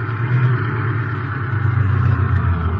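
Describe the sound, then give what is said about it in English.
A car engine rumbles steadily, a low continuous drone that swells slightly as the car turns in, with no voices over it. “Here, turn here. Look, look, that must be the warehouse.”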